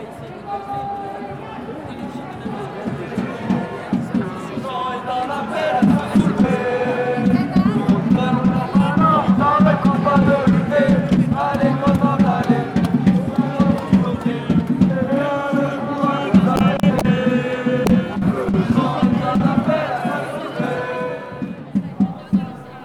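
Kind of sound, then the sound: crowd, crowd shouting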